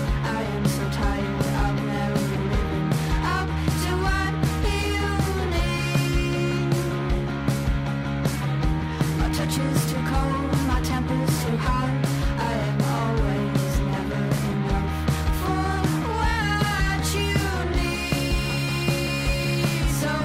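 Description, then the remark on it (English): A full pop song plays loud and steady, with a punchy beat, layered synths and a wavering melodic line riding over a thick low end, continuous for the whole stretch. “definitely one of the best tracks I've heard”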